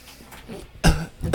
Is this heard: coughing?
yes